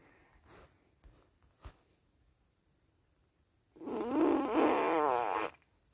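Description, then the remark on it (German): A single loud, drawn-out fart with a buzzy, wavering pitch, lasting well over a second after a stretch of faint rustles and taps. “So einmal gefurzt, deshalb.”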